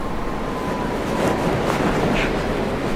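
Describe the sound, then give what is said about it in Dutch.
A ship's engine rumbles steadily in its engine room on the Baltic Sea in August 2017, a dense, unbroken wash of mechanical noise at a constant loudness, surrounding, with no voices. “De kapitein smijt mij in de machinekamer. De boot hoest roet op als bloed in duizend variaties ruis.”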